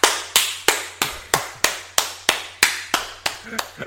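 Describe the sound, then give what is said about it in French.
Hands clap in a steady, even rhythm, about a dozen sharp claps roughly three per second, fairly loud, each with a brief ringing decay, with no talking over them. “On applaudit.”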